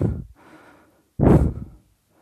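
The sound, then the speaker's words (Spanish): Heavy, gasping breaths of a person aboard a spaceship who is almost out of breath: a short breath, a softer drawn-out exhale, then a sharp, loud gasp, with no talking. “Estamos casi sin respiración.”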